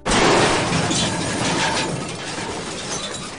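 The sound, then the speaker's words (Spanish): A loud crash of glassware hitting the floor in a kitchen and shattering, with bright clinking fragments scattering and settling over a few seconds, with no voices. “que se me ha caído todo! Ay, qué desastre, qué desastre!”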